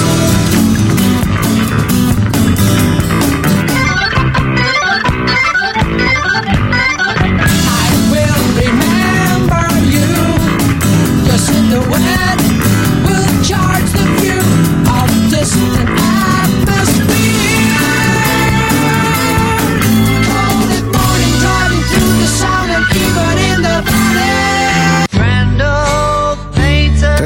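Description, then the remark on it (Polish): A loud, dense rock recording by guitarist a guitarist with a band plays throughout, with guitar lines over bass and steady drums, full and running without pause until a brief shift near the end. “to, co słyszymy, to …”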